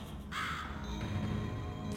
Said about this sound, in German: Eine Krähe.